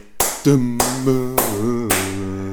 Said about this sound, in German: wie ein Roboter, der ein Shanty äh, nachsingt äh, mit verschiedenen geautotunten Stimmen und einem langen, also naja, musikalische Begleitung kann man es ja gar nicht nennen, aber so ein Klopfen im Hintergrund. Äh, 2 Minuten 30 durchgehend.